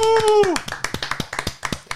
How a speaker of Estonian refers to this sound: teine koht meie tabelis siis Rivo Vesik, Eesti võrkpallitreener, olümpiamängude hõbemedal, teeme aplausi ka oh!